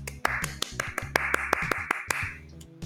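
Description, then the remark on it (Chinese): A burst of sharp, uneven claps welcoming a guest, an orthopedic attending physician, with a soft wash of applause behind them, running steadily for a few seconds over a low, stepping musical backdrop before tapering off. “让我们热烈掌声来欢迎 Doctor E”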